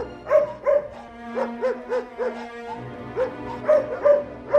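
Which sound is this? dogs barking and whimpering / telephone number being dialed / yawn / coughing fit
dogs barking and whimpering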